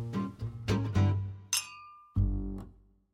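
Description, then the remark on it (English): Glasses clink together several times in quick succession, each bright chime ringing out briefly before the next, ending with one fuller clink that fades away. No one speaks. “So I'd like to leave you with a toast to the health of the wolf.”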